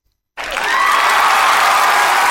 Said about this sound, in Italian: Si fa l'applauso.